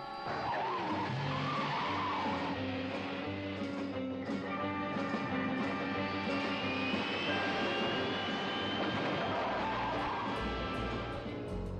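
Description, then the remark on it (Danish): A turbine car engine roars to life and speeds off, a loud, steady rush with a high whine climbing in pitch over the engine's rumble and a hint of skidding tires. “Atombatterierne er tændt, turbinerne er sat til fart.”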